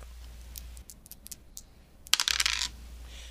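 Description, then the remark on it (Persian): Dice clatter and tumble across a hard surface as they are thrown in a 'small or big' betting game, with scattered small clicks at first and then a louder burst of rattling as they roll and settle, with no talking. “تاس بریز کوچیک یا بزرگ بزرگ”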